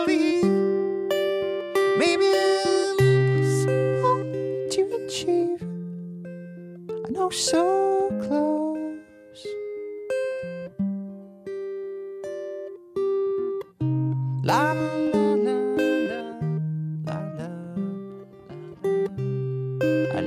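An acoustic song performed live, a voice singing sustained, sliding melodic lines over strummed accompaniment, close and fairly loud throughout, with brief pauses between phrases.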